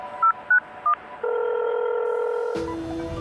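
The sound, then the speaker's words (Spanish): A phone being dialed to call the Guardia Civil, the first call made at 18:31: three quick, evenly pitched keypad beeps, then a steady electronic tone that holds for over a second before a burst of rough noise cuts in. “La primera llamada se produjo a las 18 y 31.”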